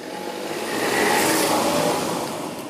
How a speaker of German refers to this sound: das Auto fährt einfach durch die Rettungsgasse, obwohl sie für die Rettungskräfte gemacht ist. Dieser Autofahrer ist kein Vorbild. Er begeht damit einen Fehler und kann dadurch sogar noch einen weiteren Unfall verursachen.